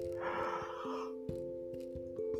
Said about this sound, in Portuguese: Eu que esteja bocejando, que eu já tô com um pouquinho de sono.